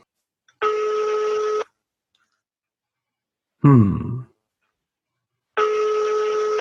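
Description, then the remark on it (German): An outgoing phone call's ringing tone, placed from an Apple Watch to a brother and not answered: two steady one-second electronic beeps about four seconds apart, clear, with a brief murmured hum from a person between them. “Der ist hier, darauf getippt und den Telefonhörer angetippt.”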